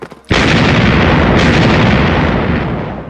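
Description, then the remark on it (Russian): A single loud cannon blast erupts after a brief quiet moment, then a heavy rumbling roar lingers and slowly fades over the next few seconds, as a cannon is fired at the meeting of two kings. “Выстрелила пушка, монархи поприветствовали друг друга и обнялись.”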